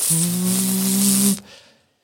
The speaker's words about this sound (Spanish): Mira, esto es una respiración.